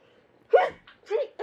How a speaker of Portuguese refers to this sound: Saúde. Desculpa. Saúde. Imagina. Parei pra espirrar, isso mesmo. Mas não é Covid, tá todo mundo testado aqui.